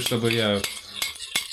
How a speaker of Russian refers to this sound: Ребят, вот это звуки кухни. И заливаем соус.